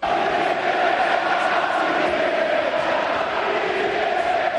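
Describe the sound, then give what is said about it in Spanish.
A large crowd at Valencia's Mestalla stadium chants "Quique vete ya" in unison, telling coach Quique to leave: a loud, dense roar of many voices that holds steady for the whole stretch without pausing or fading. “Al grito de Quique vete ya, pues mañana Quique llega a Mestalla.”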